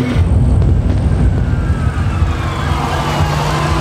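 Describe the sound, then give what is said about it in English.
An ambulance siren approaching, wailing steadily through heavy, rumbling traffic noise, its rising and falling tone cutting over the low roar of engines on a busy street. “Minutes later, paramedics arrive and transfer the woman into an ambulance.”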